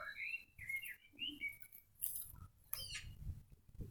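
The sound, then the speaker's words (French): Two birds on a roof further away trade quick, squeaky chirps and rising whistled calls in short overlapping bursts, sounding like a lively squabble, over a low outdoor rumble. “Deux oiseaux amoureux sur un toit plus loin se chamaillent.”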